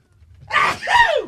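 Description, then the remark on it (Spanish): A single loud sneeze in two quick parts: a sharp breathy burst followed by a voiced, falling 'choo', with no talking around it. “I want sneeze.”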